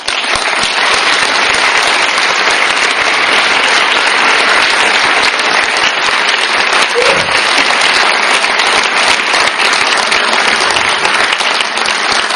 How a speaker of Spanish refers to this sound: un aplauso para él.